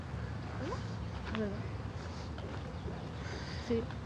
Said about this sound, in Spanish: Ay Dios, cuántas abejas.